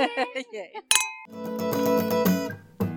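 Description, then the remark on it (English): A single bright clink of glasses raised in a toast, with a short high ringing tail, set between bursts of voices before and after it. “Cheers. Ch- ching ching. Is it this?”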